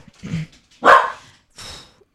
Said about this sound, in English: those are my dogs. Mm-hmm. Those are my.